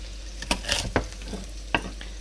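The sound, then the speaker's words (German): Asparagus, cut in halves, frying in a pan with butter and olive oil, a steady background sizzle punctuated by a few sharp clacks and scrapes as it's stirred or turned, with no talking. “Einmal und schmeiß den in die Pfanne mit der Butter und dem Olivenöl.”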